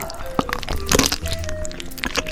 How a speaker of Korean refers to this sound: 1대1 배틀을 위해 스테이지를 만든다. 배딱지를 반으로 촥 갈랐더니 그냥 탱글 하얀 속살과 노란 내장이 까꿍 인사를 한다.